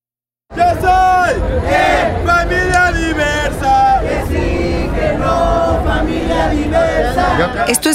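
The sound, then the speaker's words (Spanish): A loud, dense crowd chants and shouts in unison at the Pride Day march on Paseo de la Reforma, Mexico City, at 2 in the afternoon as the march is about to start. Voices overlap continuously, with rhythmic bursts of cheering throughout. “Son las 2 de la tarde y la marcha está por arrancar.”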